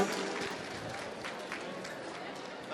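Steady applause from an audience at a live concert at CCH Oriente, a dense continuous patter of clapping at moderate volume with no breaks, sustained throughout the short stretch.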